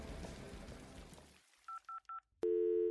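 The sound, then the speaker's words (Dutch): After a stretch of noisy, rain-like hiss fades out, three short dual-tone telephone beeps sound in quick succession, followed by a longer steady tone as the phone line connects, in a call to a Dutch rocker. “Ik bel ervaren rocker … voor meer gedrag, inspiratie.”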